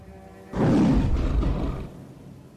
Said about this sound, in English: A thunderous roar emanates out of the cloud itself, the creature which it comes from unseen.